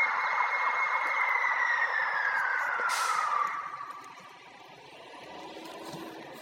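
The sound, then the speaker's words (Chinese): A fire engine siren goes by as a fire engine is called out in Melbourne, a loud steady wail that slowly drops in pitch over a few seconds and then fades out, leaving a low rumble of traffic noise. “嗯，好像不知道为什么消防车出动，等它过去以后我们再讲。”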